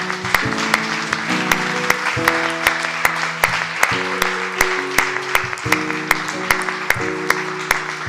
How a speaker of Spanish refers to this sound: Vamos a dar un aplauso al Señor.